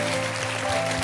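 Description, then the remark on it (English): An audience claps their hands in a prophetic hand clap, a steady, dense patter that holds an even loudness throughout, with a faint sustained musical tone humming underneath and no one speaking. “Somebody is receiving a parcel as you are clapping your hands.”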